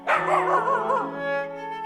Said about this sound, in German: bellte und sprang um uns herum, lief voraus und wartete keuchend, ob wir nachkämen.